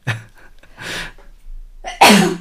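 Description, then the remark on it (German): Loud sneeze bursting out at the end, preceded by a couple of short, breathy sniffs and intakes as it builds up. No talking. “Hui, Gesundheit.”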